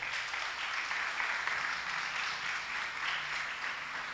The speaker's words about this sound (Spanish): De otro aplauso al Señor.